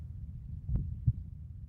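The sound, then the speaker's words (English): A single heartbeat: two soft, low thumps in quick lub-dub succession, muffled over a faint low rumble, with no voices. “She also developed a completely unique skill feeling a baby's heartbeat with her fingers.”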